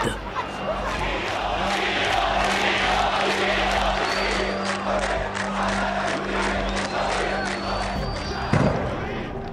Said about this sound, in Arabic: انطلقت المظاهرة ظهرا آلاف المتظاهرين في الشوارع ارتباك وكثير من الإصرار وبصوت واحد وجوههم غاضبة محمرة يشوبها العرق أياديهم في السماء تنادي بالقصاص من الشرطة وتندد بمقتل خالد سعيد